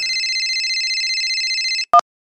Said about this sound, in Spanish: La bomba de agua se detiene, ya no hay ruido, ya voy a grabar y entonces, claro, suena el celular.